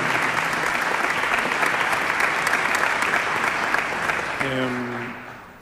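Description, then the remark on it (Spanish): A crowd applauds for the pianist Atilio Stampone in a dense, steady wash of clapping that holds loud for about four seconds, then thins as a man's voice begins speaking over the fading applause. “Le mandamos un aplauso y un cariño desde aquí.”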